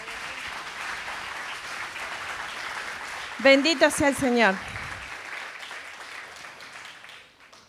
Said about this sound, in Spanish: Así que bueno, otro aplauso para el Señor.